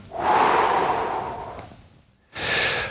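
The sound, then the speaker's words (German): A long, deep breath drawn down into the belly and released slowly and leisurely, an airy rush lasting nearly two seconds, followed by a brief pause and the start of another breath. “jetzt atmen wir so richtig tief hinunter in den Bauch und ganz genüsslich wieder ausatmen.”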